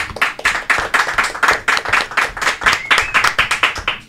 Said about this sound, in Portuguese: Então, cara, gente, foi, pra mim foi um prazer recebê-los aqui. Um forte aplauso pra Flávio Augusto, Thiago Negro.